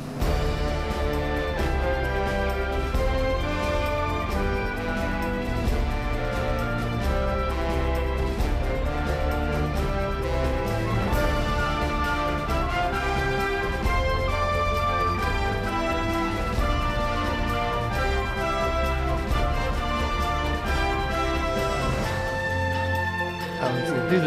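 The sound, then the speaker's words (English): A video game's main theme, which is Zelda's theme played in reverse, plays loud and steady, a full melodic arrangement with sustained harmonies and a driving low end, running alone without any talking before cutting off abruptly. “I mean, the the main theme um, of the game is Zelda's theme reversed.”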